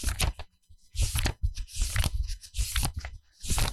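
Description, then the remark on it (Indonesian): Crisp, papery rustling comes in a series of quick bursts, like book pages being flipped one after another, with short pauses between each swish. “Tuh bunyinya udah ada kan. Tuh. Kalau bunyi halamannya.”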